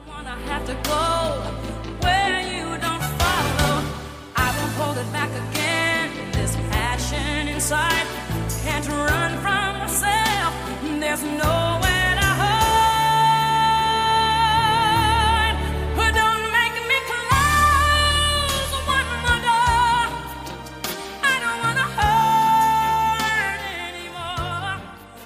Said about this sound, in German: die vielleicht schönste Powerballade habe ich mitgebracht und die klingt so.